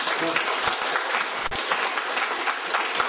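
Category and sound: crowd, applause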